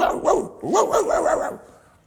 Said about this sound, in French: Je suis tombé sur une vieille dame qui avait un, caniche, un petit chien noir. Et quand je suis passé à côté, le chien commence à aboyer.